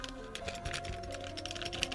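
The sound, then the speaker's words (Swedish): Keys rattle inside an envelope in a jacket pocket, keys to be mailed back, a rapid run of small metallic clicks and jingles, fairly quiet, continuing steadily for a couple of seconds with no voices. “Ja, det är nycklar i ett kuvert som jag ska posta tillbaka.”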